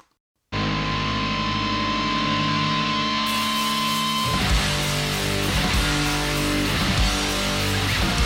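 A heavily distorted rock song by a Norwegian band kicks in after a brief silence, loud and saturated: sustained fuzzy guitar chords at first, then a driving rhythmic beat joins in. No voices.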